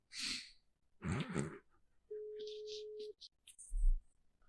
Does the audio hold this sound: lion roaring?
no